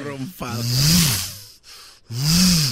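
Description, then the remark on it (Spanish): A voice imitates the whir of a gym cable machine, where you sit and pull back on a cable with a handle, with two breathy, buzzing hums. Each one rises and falls in pitch over a hissy, airy rush, with a brief pause between them. “Te sientas y te vas para atrás con todo y así y se oye como un moto un rumfador.”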